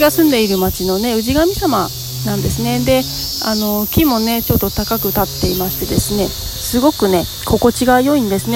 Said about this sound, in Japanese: でセミの声もねすごいな泣いてますねセミのセミがねで結構ね実はここ新宿から10分くらいのとこなのでかなり都心にはあるんだけれどもすごくねあのこの場だけ自然がねたくさんあるんですね